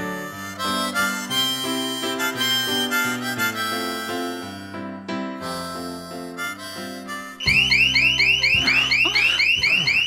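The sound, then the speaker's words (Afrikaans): A house security alarm goes off loud after several seconds of melodic music, sounding a rapid, repeating electronic warble that continues to the end with no one talking. “Was die afstand toe hier om die alarm af te sit?”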